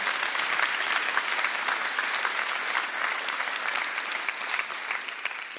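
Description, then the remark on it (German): An audience applauds God at a morning church service, a dense wash of many hands clapping at a constant, fairly loud level throughout, with no voices standing out. “Komm, wir geben ihm nochmal einen richtigen Applaus heute Morgen.”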